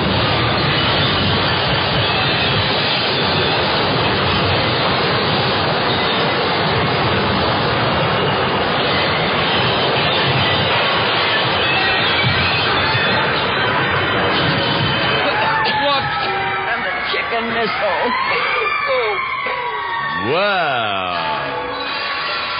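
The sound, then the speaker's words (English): A chicken missile roars in with a loud, steady jet-like rush for about fifteen seconds, then cuts off abruptly as it crashes into Midland City Hall, leaving clattering debris and warbling, whining tones that slide up and down. “Say, that chicken missile really works nifty.”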